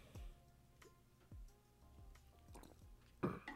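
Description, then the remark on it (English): Quiet drinking sounds: a few soft gulping thumps spaced about a second apart, then a brief wet slurp near the end, with no talking. “I'm gonna let that sit there, and you think about this as I sip this.”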